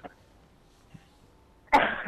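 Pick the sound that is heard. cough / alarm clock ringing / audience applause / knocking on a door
cough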